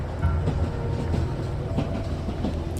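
A train rolls along its rails with a steady, heavy low rumble and faint rhythmic clickety-clack from the wheels, holding an even loudness throughout with no voices.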